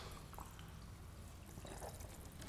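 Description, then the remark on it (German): Mineral water is poured steadily into glasses, a continuous trickle and splash filling the vessel, with no one speaking. “Was wir uns gerade hier einschenken, ist natürlich kein Gerstensaft, sondern”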